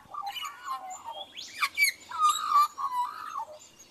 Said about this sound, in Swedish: Flöjtkråkans sång spänner över fyra oktaver och består av övertoner samt finessen att flera toner framförs samtidigt. Dessutom är den en hejare på att härma. Andra fågelarter i dess närhet härmas ofta och retsamt av flöjtkråkan